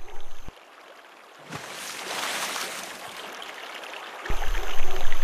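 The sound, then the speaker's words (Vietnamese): Flowing river water rushes and trickles steadily, swelling louder midway, with a few low thuds and a heavier wash of water toward the end, as an otter swims along the river, using its long, thick tail to push through the water. “Dùng một chiếc đuôi dài và to để rẽ nước, nó bơi dọc theo dòng sông.”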